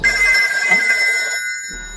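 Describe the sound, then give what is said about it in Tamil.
A telephone rings loudly in a film scene with a bright, sustained electronic tone held for the whole two seconds, over a low rumble that fades and returns at the end. It is Chris calling Father Damien to come urgently. No one speaks. “கிறிஷ் கால் பண்ணி அவர் அவசரமா வர சொல்றா அவரும் போய் பாக்குறாரு”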